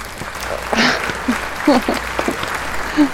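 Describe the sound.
An audience claps, a steady crackle of applause lasting a few seconds, with brief voices and a whoop or two rising over the clapping.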